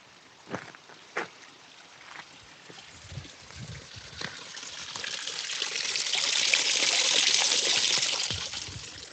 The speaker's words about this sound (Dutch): Dat klinkt toch als muziek in je oren? Een mooi kraantje. Kijk, dat is, dat is wat we willen.